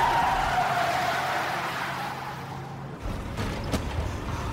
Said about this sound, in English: And then the taxi cab that flies into the water. That was going straight down Harrison Street again, totally empty.